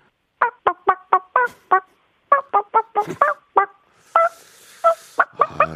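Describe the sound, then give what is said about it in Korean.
A person imitates a chicken, making a chicken sound for Park Myung-soo, with a series of short, sharp clucking bursts in quick rhythmic runs, some pauses between, ending in a few longer squawk-like calls; fairly loud, no talking. “박명수의 치맥 플렉스를 부르는 닭소리 내보겠습니다.”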